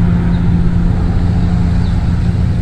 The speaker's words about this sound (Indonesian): Helikopter atau apa ini? suara iya tadi helikopter terus sekarang suara mobil agak iya sih ini sih dia lagi jalan kaki di di apa di Honolulu